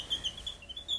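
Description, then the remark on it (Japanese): A twisted wooden bird call with a screw inside, rubbed together, squeaks out a rapid series of thin, high chirps, imitating a small bird's tweeting, fairly quiet, with no voices. “小鳥の声が出るそ木のなんかこうネジが入ってるやつみたいなのをこうやってすり合わせるとこういう音が出るっていうのがエコーエコーっていうの、うん、トリオエコーって名前がついてる”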